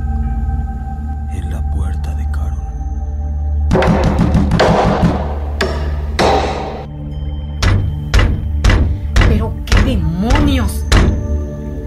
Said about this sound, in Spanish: Los martillazos van aumentando en fuerza y velocidad, hasta parecer que van a derrumbar la puerta.